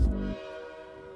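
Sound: train departing with horn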